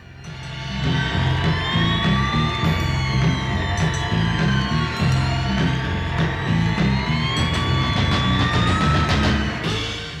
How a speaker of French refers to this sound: l'enregistrement en studio d'un instrumental digne d'un film d'épouvante, …